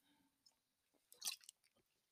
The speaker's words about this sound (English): I'm not doing that, but hey, I'll have a sip of wine.